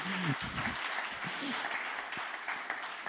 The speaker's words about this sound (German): gebt ihm mal einen Applaus für diese fantastische Predigt, die er damals gehalten hat.